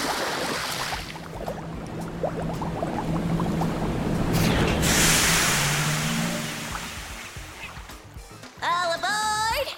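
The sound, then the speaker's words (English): A small submarine surges up through churning water, its steady motor hum beneath sloshing and bubbling that swells and fades, ending with a short warbling, rising electronic tone. “Is that a tiny submarine that just pulled up and a small person about your age that just welcomed us aboard?”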